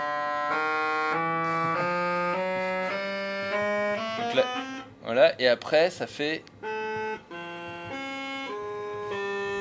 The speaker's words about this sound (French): Il y a 56 tuyaux pour les flûtes là, euh, pour les chromornes qu'on entend. Donc les 24 premiers sont, on va dire, accordés traditionnellement. Et puis après, les autres, on les a laissés libres. Et ils font...